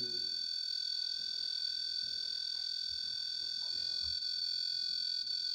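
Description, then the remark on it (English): A REM pod ghost-hunting sensor alarm sounds a steady, shrill electronic tone that holds unchanged for the whole stretch, with faint low rustling and murmurs underneath. “I'm very sorry for the audio because REM pods are also very annoying.”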